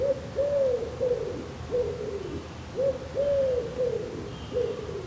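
A wood pigeon in the radio garden coos in a soft, low, repeated rhythm, each hoarse phrase rising and falling, with a brief pause before the pattern starts again. No one speaks.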